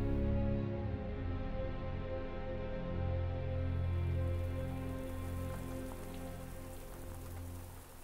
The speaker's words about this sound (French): Le lendemain, Resso s'assoit devant son piano en regardant le triste ciel de Paris, brouillé par la pluie qui coule avec mélancolie sur sa fenêtre.